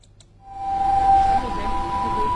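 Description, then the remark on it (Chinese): An ambulance siren holds a steady, high-pitched wail over a rumble of traffic noise that swells in after a quiet opening and stays loud to the end, as the ambulance carrying the last four critically ill patients drives away from Leishenshan Hospital in Wuhan, China, transferring them to Zhongnan Hospital of Wuhan University. “呃，刚刚呢，救护车是搭载雷神山医院最后的四名危重症患者呢，驶离了雷神山医院，转院到了武汉中南医院。”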